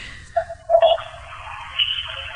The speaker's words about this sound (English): Uh, that was a scooter. Exactly.